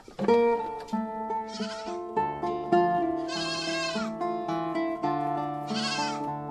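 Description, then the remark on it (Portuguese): A herd of goats bleats nonstop, many wavering cries overlapping into a loud chorus, with some voices rising above the rest and no talking; nearly the whole herd stands in front of the pens and stalls in a village at the end of the afternoon. “Até ao final da tarde, as cabras, quase todo o rebanho, estacionam em frente aos currais e às cortes.”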